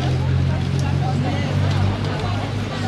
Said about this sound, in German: Jetzt ein Trecker.